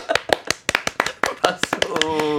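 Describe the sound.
A quick run of hand claps in applause, about a dozen sharp, slightly irregular slaps in under two seconds, with a voice and a sustained tone rising at the very end.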